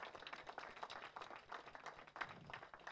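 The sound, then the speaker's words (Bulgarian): Subdued, scattered applause from a church audience, the claps soft, uneven and tired-sounding, without building into a strong ovation, with no one talking. “О, вие пляскате като че ли сте уморени.”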